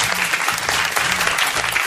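A steady burst of crowd applause, many hands clapping densely and evenly at a fairly loud level for a couple of seconds, with no voices standing out.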